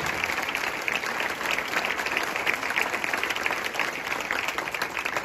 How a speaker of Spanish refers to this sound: Porque definitivamente el único que puede hacer eso es el príncipe de paz, a que le brindamos un aplauso fuerte mientras tomo agua.